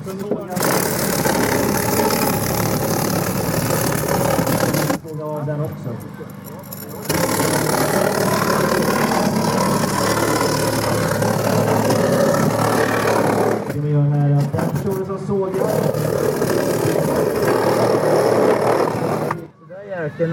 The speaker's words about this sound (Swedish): har man sågat i framrutan på din bil.